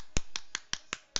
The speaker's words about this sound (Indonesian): Ntar ini suara rokok.